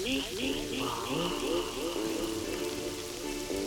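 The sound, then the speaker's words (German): Steady pattering rain forms a constant hissing wash throughout, with a tonal, voice-like melody sounding over it in the foreground. “Das passt richtig gut zum Prasseln des Regens.”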